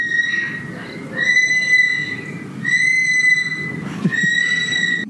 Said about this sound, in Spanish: Mae, esa, lora suena como una casita de terror, una mierda así.